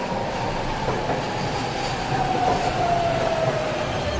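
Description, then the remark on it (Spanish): A Kodama bullet train bound for Shin-Osaka running: a steady, loud rushing rumble with a thin whining tone drifting slightly downward through the middle, and no voices. “この fucking 電車は小玉号新大阪行きです。”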